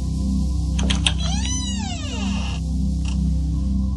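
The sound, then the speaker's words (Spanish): A door creaks slowly open, a drawn-out, wavering squeal of rising and falling pitch over a steady low hum, with a couple of short knocks before and after. “Scarlett abrió la puerta. Se escuchaba el sonido que se producía al abrirla lentamente.”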